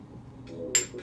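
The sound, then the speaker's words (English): Shot glasses clink together once in a quick toast, a bright ringing tap, preceded by a softer contact and set against a low background murmur. “Cheers. Wow. Cheers.”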